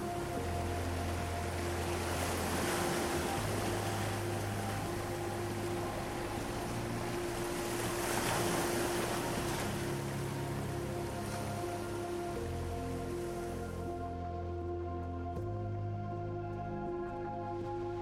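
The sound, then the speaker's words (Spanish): Ocean waves wash steadily onto a sandy beach, swelling in soft surges every few seconds, blended with a calm, sustained musical drone; no one speaks. “Puede ser una playa en donde escuchas las olas chocar en la arena y sientes el calor del sol abrazar tu cuerpo.”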